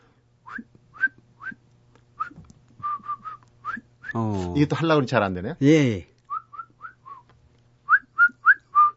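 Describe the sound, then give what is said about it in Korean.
A person whistles short, rising chirpy notes in repeated bursts, imitating the unusual call of a bird heard while hiking in the mountains in spring, with a brief stretch of talking in the middle before the whistled phrases resume, quicker and louder. “제가 그 새소리가 하도 특이해서 같이 따라 했거든요.”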